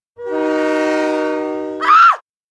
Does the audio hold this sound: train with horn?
yes